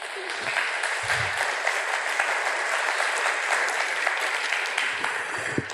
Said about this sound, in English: Give those folks a round of applause, please.